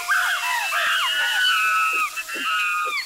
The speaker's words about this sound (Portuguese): Um belo dia, o bando de macacos estava comendo Inajá e se divertindo, fazendo uma bela algazarra.